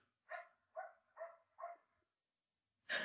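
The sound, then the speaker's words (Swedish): A dog suddenly starts barking, four barks in a quick, steady rhythm, sounding somewhat muffled, followed by a brief pause and then a sudden louder burst of noise at the end. “Undrar om alla hör den här hunden som helt plötsligt börjar skälla och tappar, så fick mig att tappa mitt fokus helt totalt.”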